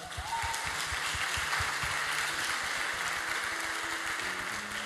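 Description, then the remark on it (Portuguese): Sustained applause from a crowd for the church, a dense, steady wash of clapping at an even loudness for the full length, with a few faint tonal hums beneath it. “Vamos dar um aplauso para essa igreja maravilhosa.”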